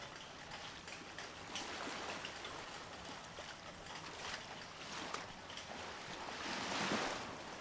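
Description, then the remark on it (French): Ocean waves crash and wash continuously, a broad rushing roar with surges building, the largest swell breaking near the end. No voices, just steady surf. “Je m'en remets à l'océan, au tumulte des vagues, à la joie des éléments.”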